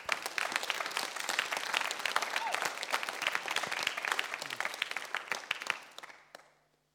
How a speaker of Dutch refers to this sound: En dan wil ik je vragen om Jezus een hele grote applaus te geven deze ochtend.